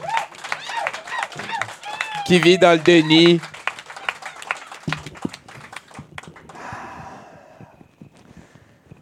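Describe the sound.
A short burst of applause and clapping rises amid lively voices, then thins into scattered claps that fade under continued talking.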